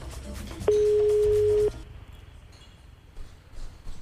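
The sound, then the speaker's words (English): A single electronic telephone ring sounds as one steady, fairly loud tone lasting about a second, then stops, leaving a quiet rumbling background with no one speaking. “Ah, the phone is ringing.”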